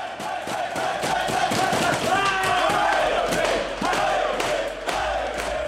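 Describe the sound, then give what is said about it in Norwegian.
Bodø/Glimt football supporters in a dressing room chant loudly in unison, voices rising and falling together in rhythmic shouted phrases like 'Bodø-Glimt hei', with thumps from beating on empty pizza boxes, equipment boxes and dressing room walls, and whoops running through the steady roar. “Og så eh, roper de 'pump han opp', 'putt han inn', 'kjør på med ballene og alt du har'.”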